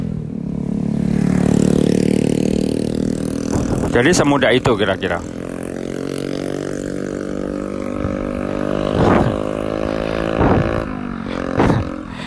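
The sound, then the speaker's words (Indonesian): A motorcycle with a loud aftermarket exhaust drones and revs steadily throughout, with a man talking and laughing over the rumbling engine. “Saya heran ya, yang menciptakan kenalpot bising itu mikirin apa gitu. Setelah dipasangin motor, eh setelah knalpotnya dipasang ke motor juga tidak tambah kencang.”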